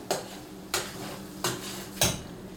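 Sauce being stirred in a pot before tomatoes are added and pasta goes into the water, with four evenly spaced scrapes of a utensil against the pot's side, moderately loud over a low steady kitchen hum.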